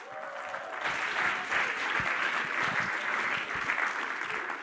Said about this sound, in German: Geben wir doch einen grossen Applaus